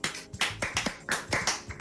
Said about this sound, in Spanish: vamos a hacer un aplauso fuerte.